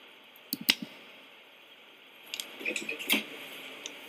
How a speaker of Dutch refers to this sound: eens even kijken, wat zou nog geluid maken? De watercooler.